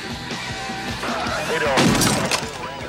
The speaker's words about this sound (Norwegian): Boys, shoot the radio.